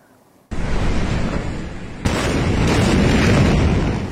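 A massive explosion at a port warehouse in Beirut on Tuesday erupts suddenly after a brief quiet, becoming a loud, sustained rumbling roar that surges again midway through, with no voices heard. The blast shook the ground as far as Cyprus, 150 miles away.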